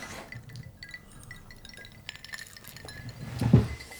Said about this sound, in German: Ich glaube, man hört schon die, die Eiswürfel klimpern, vielleicht. Ja, ähm, genau, deswegen erstmal Stößchen darauf.